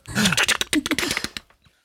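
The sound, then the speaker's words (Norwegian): Crinkly paper rustling and tearing in quick, uneven bursts as a paper-wrapped roll is opened, with a low voiced grunt of effort at the start, fading out after about a second and a half. “Da åpner jeg opp eh, papirhusrullen her.”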